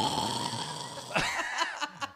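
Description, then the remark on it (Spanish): A voice imitates a long, drawn-out snore, a raspy, throaty rumble held for about a second, then breaks into short choppy bursts. “Y, y apenas el mae toca el piso, yo escucho al mae como como un ronquido muy largo, como...”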